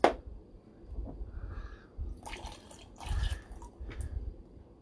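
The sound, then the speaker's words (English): Liquor for shots splashes into a glass in several short, uneven pours, fairly quiet, opening with a sharp clink; no one speaks. “Pour some in your glass.”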